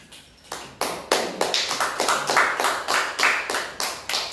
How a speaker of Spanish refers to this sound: Palmas a Jesucristo, a ver.